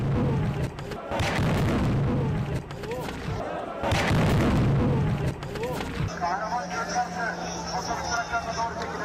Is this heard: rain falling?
no